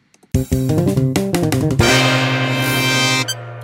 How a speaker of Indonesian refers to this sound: orang-orang nggak butuh intro lagi boleh nggak sih boleh Kata. boleh boleh sekali lagi sekali lagi ya